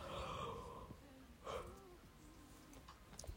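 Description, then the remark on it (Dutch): A drawn-out yawn: a breathy inhale that swells, then trails off into a low, wavering voiced sigh, heard alone without talking. “zeg ik nadat ik moet gapen.”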